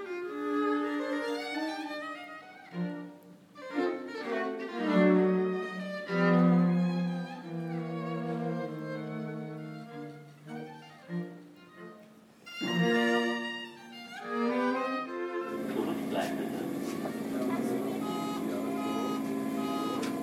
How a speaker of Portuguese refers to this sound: Bom, pessoal, vamos ficando por aqui, direto do metrô de Berlim.